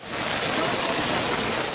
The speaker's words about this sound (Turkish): Ankara'da yağan yağmur kentin yüksek kesimlerinde yerini kara bıraktı.